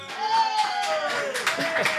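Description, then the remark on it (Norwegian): A short burst of applause from a small group in a studio, welcoming a 16-year-old guest, steady overlapping claps filling about two seconds, with a thin sustained whistle-like tone gliding slightly downward over the clapping. “Jeg vet ikke om det er stående applaus, men du fikk i alle fall en, en viss applaus, da.”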